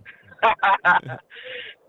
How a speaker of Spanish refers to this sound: es del pavo.